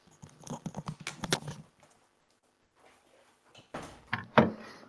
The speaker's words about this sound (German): So, erstmal Tür zu machen.